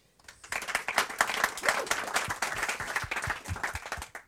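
An audience breaks into applause, a dense burst of many hands clapping that starts abruptly and holds steady at a fairly loud level for about four seconds, with no voices over it.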